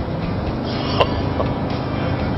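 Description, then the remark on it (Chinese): The aftermarket, non-factory exhaust of a 5.7-liter V8 engine (model 312FE) rumbles loudly and steadily, a deep, dense throb with a brief sharp pop partway through and no voices. “因为它的这个排气也不是原厂的，也是后改装的，我只能说，在声音上确实非常的震撼，甚至我觉得都有一些吵到我解说了。”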